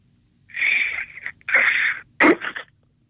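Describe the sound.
A voice imitates a watermelon cracking open as it's cut: three breathy hissing bursts, the last one sharper and crackling, with no other talking.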